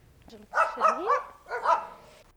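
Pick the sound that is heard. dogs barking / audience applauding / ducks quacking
dogs barking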